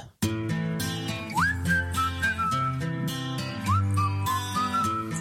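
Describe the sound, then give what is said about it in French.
A pop song plays with a bright whistled melody gliding up and holding high notes over steady beats, bass and layered instruments, loud and continuous with no talking. “Voici le premier extrait de la playlist Ça siffle.”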